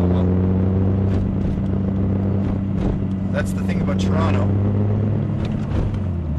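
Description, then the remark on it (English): A steady, low engine drone fills the cabin of a moving car in slowed morning traffic, approaching the Queensway exit at South Kingsway in Ontario, continuous, while a man talks over it throughout. “Talking in my car.”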